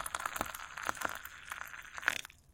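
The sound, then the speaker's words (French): Water being poured gradually over ground coffee in a filter above a coffee maker to make filter coffee, a steady liquid splash with small crackling bursts throughout, tapering off at the end. No one speaks. “Comparez cela au son d'un café filtre maintenant.”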